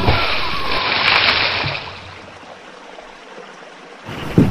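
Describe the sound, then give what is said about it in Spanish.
A heavy splash as a man, Muktop, tumbles from a motorboat into water when a sudden turbulence jolts the boat while he prepares a net, followed by a quieter stretch of churning, bubbling water and a fresh slosh at the end. “Una turbulencia brusca mueve la lancha. Miktop no puede controlar el movimiento y cae al agua.”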